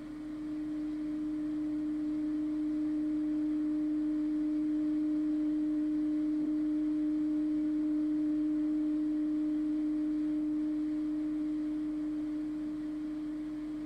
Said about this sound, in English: Next, we put a simple clear tone in one ear, like this.